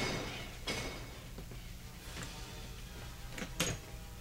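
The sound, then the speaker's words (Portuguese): A door at the end of a deserted corridor, leading out to a park, is opened: a few brief clunks and latch-like clicks spread over several seconds, fairly soft, with a low background hum and no voices. “Bem na sua frente a porta que deve sair no parque.”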